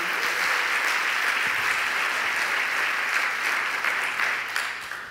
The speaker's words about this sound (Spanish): Dele ese aplauso bien fuerte al Señor, Él se lo merece.